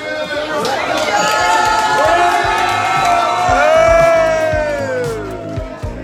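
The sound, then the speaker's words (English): A lively crowd of Jacksonville Jaguars fans inside a Waffle House restaurant cheers and whoops loudly at the team's quarterback late at night after a game, voices swelling together in sustained excited shouts over about six seconds, with chatter and clatter underneath. “grabbing some late night breakfast at Waffle House and getting cheers from Duval fans inside.”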